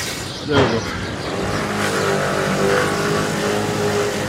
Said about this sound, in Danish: Og jeg synes, det ser ud til, at vi skal afsted på hans ikke så store scooter.